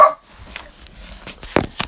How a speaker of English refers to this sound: Hello, and we also have Nim here, the barking dog, who is going to weigh in. The dire wolf.